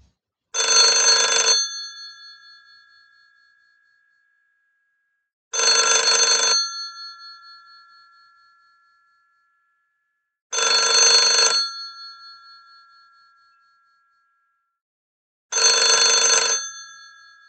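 A telephone bell rings four times as someone places a call, at a steady, unhurried pace, each ring a loud metallic burst about a second long that fades out before the next. No voices are heard.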